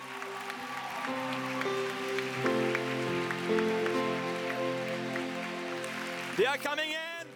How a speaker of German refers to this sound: Geben Sie ihnen einen großen Applaus.